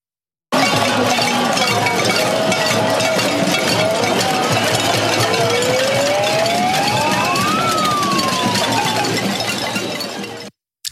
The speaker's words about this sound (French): Déjà dès lundi soir, hein, lors de euh, l'allocution du chef de l'État à la télévision, on a entendu des concerts de casseroles un petit peu partout en France.